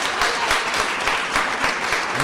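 Audience applause fills the whole moment, a dense, steady patter of many hands clapping at even loudness with no voices rising above it, as a doctor is welcomed on stage.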